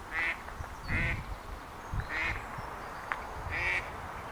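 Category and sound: bird, ducks quacking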